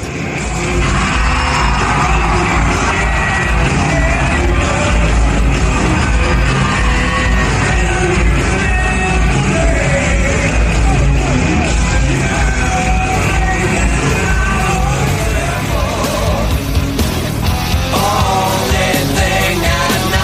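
A huge concert crowd roars continuously, with loud yelling, whoops and cheers blending into a dense, sustained wall of noise that stays intense throughout.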